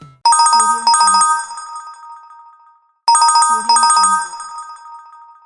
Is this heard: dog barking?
no